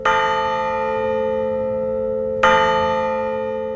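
A carillon bell, struck by small hammers, rings twice, a couple of seconds apart, each clear metallic strike ringing on with a long, rich sustain. It is fairly loud, with no voices.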